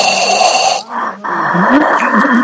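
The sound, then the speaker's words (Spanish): Heavy, raspy breathing, loud, playing in headphones, with a long drawn breath, a brief pause, then another rough, noisy breath. No voices are heard. “permítanme, presentarles, antes de que otra cosa pase, a esta respiración que se escucha a lo lejos, tipo, tipo cosador?”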